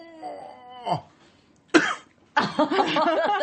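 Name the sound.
coughing fit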